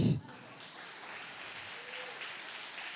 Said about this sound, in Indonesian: Wow. Boleh kita tepuk tangan lebih.